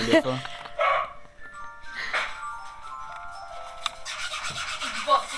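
A dog barks in a few short, scattered bursts, with a steady tonal hum and faint background noise running between the barks.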